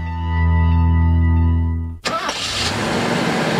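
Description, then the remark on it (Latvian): A car engine cranks with a steady whirring starter for about two seconds, then catches and roars into a loud, rough, continuous running rumble. No one speaks. “Slāpējiet nost, stājiet ceļā malā un nedomājiet tagad nekur braukt.”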